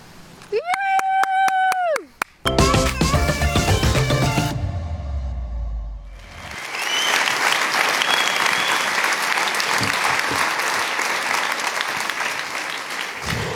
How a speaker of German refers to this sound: Und deswegen begrüßen wir dich jetzt auch hier mit einem tosenden Münchner herzlichen Applaus auf dieser ICF-Bühne.